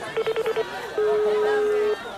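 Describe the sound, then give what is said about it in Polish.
A phone line sounds a quick run of five short beeps, then one long steady ringback tone, clear over low background chatter from a few people; a man standing on a stage is phoning his mother. “Dobra, jest sygnał.”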